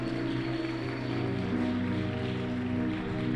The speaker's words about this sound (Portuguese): Você aplaude ao nome do Senhor mais uma vez, por favor?